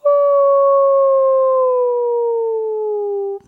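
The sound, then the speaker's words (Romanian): A person imitates a wolf howl: one long, steady wail held for about three seconds, its pitch sliding gently downward before it cuts off abruptly. “Așa, ăsta este sunetul produs de lup.”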